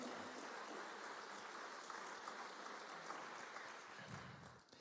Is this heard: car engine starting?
no